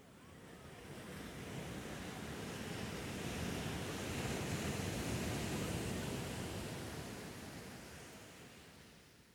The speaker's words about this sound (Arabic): رسم ماجد نفسه مسافرا في البحار في سفينته الحمراء ذات الشراع الابيض والتي تقاوم الامواج والرياح